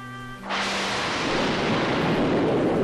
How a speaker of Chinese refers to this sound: 轰隆隆，轰隆隆，雷声越来越响，震得整个房间都摇晃了起来。